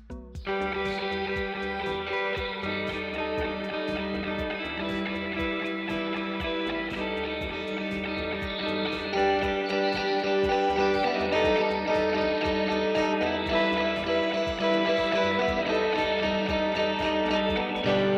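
A band's song plays continuously and loud, with layered effects-laden guitars, steady drums and sustained harmonies filling the mix. No one talks over the music.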